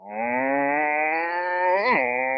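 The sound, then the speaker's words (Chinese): A voice imitates the revving of a modified exhaust on a Mustang car: one steady, buzzing low drone for about two seconds, with a quick pitch swoop near the end, loud and alone without other talk. “不是因为改了排气导致油耗上升，而是改了排气之后你就疯狂的想踩油门，就忍不住的想去踩，就想听排气上来那样，”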